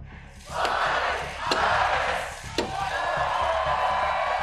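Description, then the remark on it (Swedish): A large crowd roars and cheers loudly throughout the opening of Oktoberfest in Munich, punctuated by three sharp, hard knocks about a second apart as Munich's mayor, in the traditional ceremony, drives the first tap into a beer keg with three hammer blows. “Ja, så här lät det när Oktoberfest i München var tillbaka efter två års frånvaro på grund av pandemin.”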